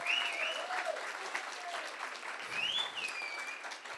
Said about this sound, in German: Mit, oh wow, mit so einem Applaus wollte ich sagen, bin ich noch nie begrüßt worden. Ähm, danke.